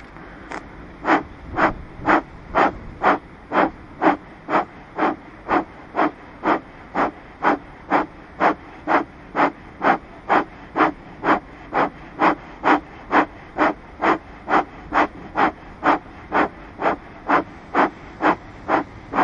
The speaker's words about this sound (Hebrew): לא צריך לחרוק שיניים, לכווץ גבות, תנסו לייצר את העבודה הנינוחה, לקחת שאיפה עמוקה, לנשוף נשיפות קצרות וקצובות, כשאתם מרגישים שנגמר לכם האוויר, שתי נשימות רגילות ועוד סבב חדש.